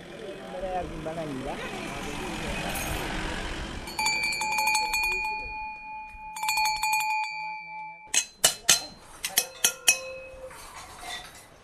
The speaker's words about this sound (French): Hein à l'époque des rois du Kutch, on les utilisait seulement dans le désert. C'était seulement pour le bétail des nomades, ces cloches-là. Maintenant, c'est aussi pour les maisons. Tu l'attaches à la porte.